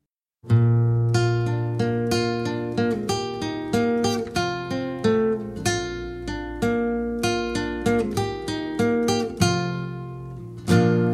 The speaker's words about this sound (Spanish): Bueno, voy a presentar el primer single de este disco